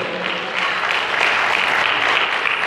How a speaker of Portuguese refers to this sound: Aleluias! Pode aplaudir o Senhor.